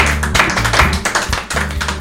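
A burst of applause from a group, many hands clapping in a dense, irregular patter that stays fairly loud for about two seconds, with a low steady hum underneath and no voices.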